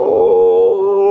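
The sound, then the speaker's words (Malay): A person imitates a mournful, crying-like dog howl, a single loud, sustained wailing note held steadily for about a second. “Selalu bunyi anjing macam sayu macam gitu.”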